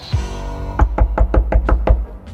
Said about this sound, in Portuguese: Tem alguém batendo na porta, maluco. Abre essa porta, mulher.